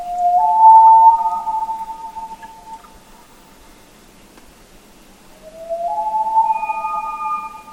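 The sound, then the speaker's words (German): A common loon, recorded in Greenland, gives two long, mournful wailing calls separated by a pause, the second sliding upward in pitch and holding a steady, haunting tone, with no one speaking. “Vogel der Woche: Eistaucher”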